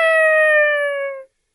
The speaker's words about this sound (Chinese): 后来，小公鸡每天早上总是快快乐乐的叫着“咯咯咯，